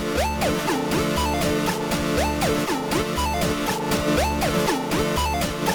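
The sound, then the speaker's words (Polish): A pulsating synth tone, its pulsation set with the right knob while the chord button is held, rides over a looping chiptune beat, with bright stepped melody patterns repeating roughly every second and a steady low bass pulse, loud and continuous with no voices. “Oczywiście poziom pulsacji mogę też regulować prawym pokrętłem.”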